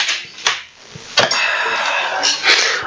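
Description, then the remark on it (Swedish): A bottle of Mariestad Dunkel beer is opened: a couple of sharp metallic clicks, then a long, steady hiss of escaping gas that swells briefly near the end. No one speaks. “Ska vi öppna en till öl? Det gör vi.”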